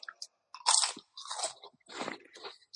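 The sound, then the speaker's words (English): Loud crunching from someone biting into a large grain of salt, several bursts of crisp chewing noise in an uneven rhythm with short pauses between them, no voices. “I'll even take a bite of this grain of salt just so you know.”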